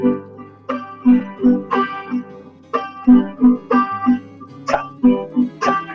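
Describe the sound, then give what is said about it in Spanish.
A bright tiple is strummed in a steady rhythmic pattern, ringing chords broken up by short, muted percussive chasquido strokes, played fairly loud with no voices. “en el tiple se utiliza como una especie de chasquido, como si, si le estuviéramos dando a un platillo, ¿cierto?”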